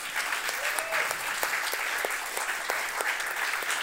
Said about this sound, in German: Ihr macht das wirklich sehr, sehr gut. Also, zwischendurch könnt ihr einfach einen spontanen Applaus an die beiden, beiden weitergeben.